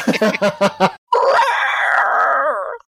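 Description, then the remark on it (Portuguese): A few quick vocal syllables, then a person's voice tries unsuccessfully to imitate an elephant trumpeting, with one loud, strained, sustained blare lasting nearly two seconds. “É que ele tentou fazer o barulho do elefante.”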